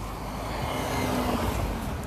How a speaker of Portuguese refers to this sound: Tá passando o carro.